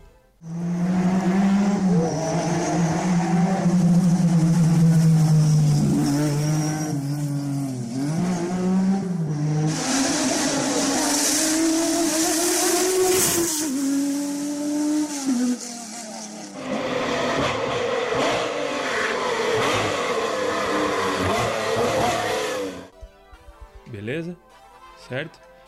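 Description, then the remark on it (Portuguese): A loud car engine roars and revs repeatedly, pitch rising and falling with each throttle push, then a burst of screeching tire noise before it cuts to faint rattling. “Parece idiota, mas ouçam e pensem um pouco sobre a marca, motor de marca diferente, pense no que, que vai no ketchup, ouça um ronco e eu já dou a resposta.”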